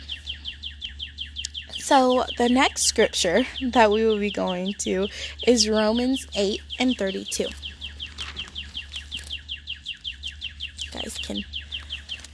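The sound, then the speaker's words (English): Birds chirp steadily in the background, a dense run of quick, repeated tweets that continues throughout while a person talks over them in the foreground. “listen to the birds chirp there if you can hear it.”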